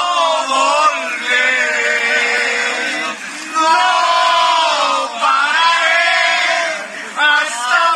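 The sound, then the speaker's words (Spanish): A loud crowd shouting and bellowing together in protest outside the Senate of the Republic, in sustained, drawn-out cries that swell and dip, with many voices continuous for the whole stretch. “No, Escuche usted, qué feo berrean.”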